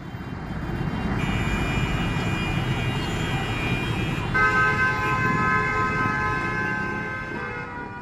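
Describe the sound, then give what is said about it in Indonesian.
A dense, continuous roar of Jakarta city street traffic, motorbikes and cars with engines rumbling steadily, and a wailing siren rising over the din partway through, loud throughout with no voices. “Berisik ya Jakarta? Orang-orang sibuk di sini. Jadi, motor mobil modal bandir udah kayak makanan sehari-hari.”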